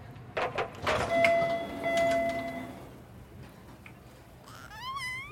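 A subway train approaching Broadway Station at 10:14 a.m. rumbles in with clattering bursts and a steady, high-pitched brake squeal, followed near the end by a rising, warbling electronic whine as it settles at the platform.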